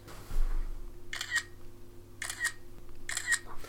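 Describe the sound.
Someone mimics an iPhone camera's shutter click, as heard with the sound on, using their mouth: three crisp, hissy snaps spaced about a second apart over a low, steady hum.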